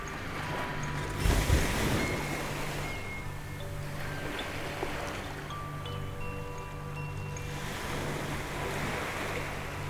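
Ocean waves wash onto a sandy beach under the sun in a steady, hissing roar, with a louder surge early on and another swell near the end, alongside faint sustained tones.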